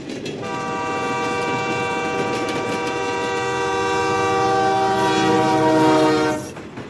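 A train horn blows one long, loud, steady blast over the rumble of a passing train, swelling slightly before cutting off near the end. No one speaks.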